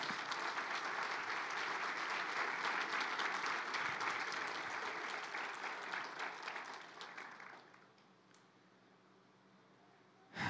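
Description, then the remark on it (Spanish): An audience applauds God during a church service in a dense, sustained wash of clapping that stays loud for about seven seconds, then thins and fades out, leaving near silence at the end. “Dale un fuerte aplauso a nuestro Dios en esta hora.”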